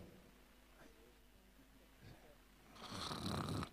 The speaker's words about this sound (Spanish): Se escuchan hasta los ronquidos.